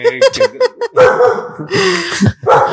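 A dog barks, starting with a quick run of short, sharp yips before breaking into louder, longer, more strained barks that fill the rest of the moment.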